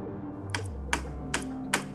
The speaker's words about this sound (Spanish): así como que como que como que si con un lapicero estuviesen picando el, el vitropiso. Y digo, ching, ya se metió algún ladrón o algo.